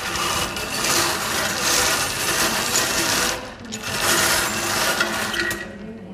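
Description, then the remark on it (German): A bingo drum turns during a bingo activity for residents at the Papst Leo Haus of the Nikolaus Groß Stiftung in Essen, a Caritas facility, its balls rattling and clattering in a dense, steady churn that pauses briefly midway before resuming, fairly loud with no voices. “Unser Geräusch ist das Drehen der Bingo-Trommel welches typisch ist für eines unserer vielen Angebote, die unsere Bewohnenden”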